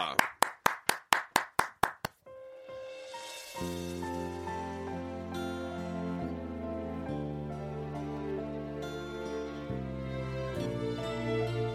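Applause in unison on a radio program before a live song performance: about nine sharp, evenly spaced claps in a brisk rhythm, then the clapping stops and sustained instrumental music swells in.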